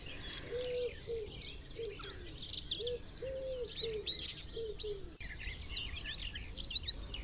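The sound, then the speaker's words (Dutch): A wren sings a rapid, high, rattling series of trills and chattering notes, growing busier and louder toward the end, while low, evenly repeated cooing notes of a wood pigeon sound underneath. “Winterkoning achter ons.”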